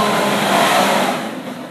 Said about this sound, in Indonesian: balapan apa itu? truk racing, truk racing. Jam-jam segini tuh truk pada jambore.